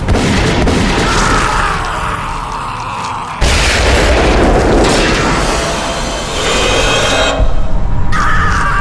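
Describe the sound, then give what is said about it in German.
A sustained, roaring explosion rumbles loudly with heavy low-end booms, a fresh blast erupting partway through and another surge near the end, all dense with no voices. It is an inferno set off a few hundred metres away by a cross thrown into a pit. “Mit diesen Worten warf er das Kreuz in die Grube und löste damit einige hundert Meter weiter ein Inferno aus.”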